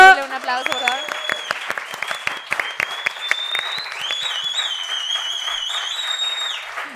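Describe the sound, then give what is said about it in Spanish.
An audience claps steadily for several seconds, a dense crackle of many hands, while high whistles or cheers rise and hold above it. “Gracias, un aplauso.”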